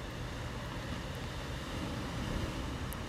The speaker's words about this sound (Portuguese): Espero que dê para ouvir o mar, essa voz sempre em movimento.